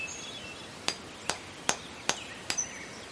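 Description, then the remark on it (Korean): A person in the Paleolithic era breaks stone with a large hammer on a spring afternoon, striking five times in a steady rhythm, each blow a sharp crack, with faint birdsong chirping in the quiet background. “그가 큰 망치를 들어 돌을 퍽퍽 깹니다.”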